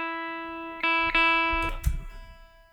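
An electric guitar being tuned with an old Pitch Black tuner: one sustained, bright note rings steadily and is re-plucked several times, with a couple of sharper string attacks near the end. No one speaks.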